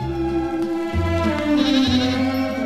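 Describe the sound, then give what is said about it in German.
Goats of a Rocamadour goat-cheese producer in France bleat in overlapping, wavering cries, several animals calling one after another with barely a pause, like a lively herd. “Fröhliche Ziegen als Botschafter des Rocamadour-Käses.”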